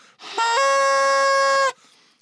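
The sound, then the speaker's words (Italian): A small toy trumpet honked through the nose gives one loud, buzzy blare lasting just over a second, its pitch stepping up slightly near the start, with no one talking. “provato e, e sfidato sul, sul, sull'onore da, da, miglior musicista e si infila la, la trombetta nel naso”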